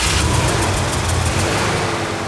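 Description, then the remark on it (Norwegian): The big-block engine of a large black limousine rumbles loudly and steadily in a side street in London, a deep throaty sound with a faint rhythmic pulsing, running on its own with no voices. “Den derre Big Block Mayhoteren brente av i Sidegat i London.”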